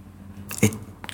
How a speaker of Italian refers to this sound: Lui mastica semi di mela alle, alle, alle 5 del mattino